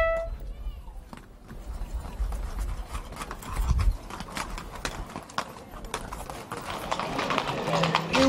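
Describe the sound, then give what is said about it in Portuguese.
Horse hooves clip-clop in a steady, busy clatter, as if several horses pass on hard ground during a horseback pilgrimage from Moita to Viana do Alentejo, with indistinct voices and outdoor crowd noise beneath the hoofbeats. “alguns belíssimos testemunhos do que é viver ao vivo e a cores a Romaria a cavalo da Moita até Viana do, do Alentejo.”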